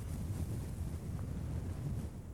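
A continuous low rumble of water and waves washes steadily in the background, even and unbroken, with a windy, muffled quality and no voices.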